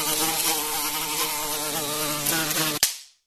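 A housefly buzzes loudly and steadily with a wavering drone for about three seconds, then stops abruptly with a sharp swat-like click before fading to silence.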